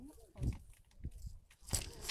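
Adhesive tape being torn with the teeth while taping an owl-protection notice around a tree: a few short, crunchy bites and crackles, then a louder, harsh ripping sound bursting out near the end.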